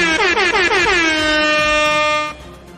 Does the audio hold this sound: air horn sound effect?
yes